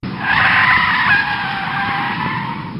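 A loud tire screech as a car brakes hard, a sustained high-pitched squeal lasting a few seconds and fading slightly toward the end, with no talking.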